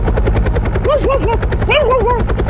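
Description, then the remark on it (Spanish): A person imitates a helicopter with their voice: a loud, steady, rapid low chopping throb, with two bursts of wavering, looping whistle-like tones over it. “Ya se me acabó el helicóptero.”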